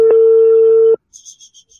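A steady, low-pitched telephone tone from a phone call placed from the United States drones loudly for about a second and cuts off abruptly, followed by a few faint, high chirping pulses. No one speaks.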